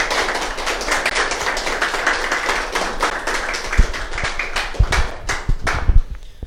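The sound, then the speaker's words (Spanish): A crowd applauds for God, clapping steadily and densely, a few sharper individual claps standing out toward the end as the applause begins to thin. “Dale un aplauso más a Dios, por favor.”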